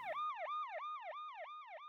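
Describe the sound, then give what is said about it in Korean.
A police patrol car pulls in, its siren yelping in rapid, rising-and-falling sweeps, about three per second, loud, with no voices over it. “바이크에 시동을 켜고 그곳을 떠나려는 순간 순찰차가 사이렌 소리를 크게 내며 들어선다.”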